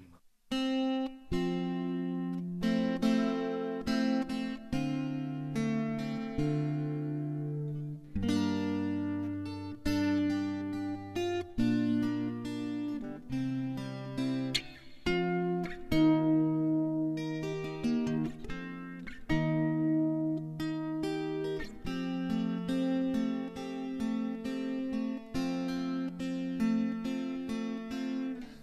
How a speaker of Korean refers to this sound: 기타를 녹음을 해서 저에게 이메일로 쐈어요. 네. 그리고 저는 이걸 들고 녹음을 한 걸 믹싱을 해서 들려드리겠습니다.